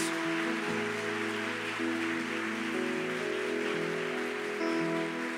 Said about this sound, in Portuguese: Como mães, eu sei que vocês são leoas, e eu queria um forte aplauso às mães que estão aqui nessa manhã. Aplaude as mães, elas são incríveis.